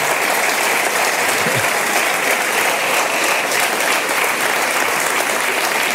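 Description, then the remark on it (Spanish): A crowd applauds steadily for the full six seconds, a dense, even wash of many hands clapping at constant loudness with no voices rising above it. “Ya, no sé si, si me aplauden porque llegué a, esta etapa, ¿no?”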